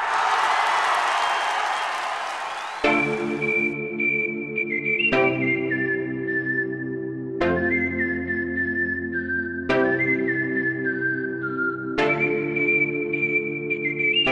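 A loud burst of audience applause and cheering welcoming a new co-host lasts about three seconds, then cuts to a bright jingle with a high whistling melody over steady chords.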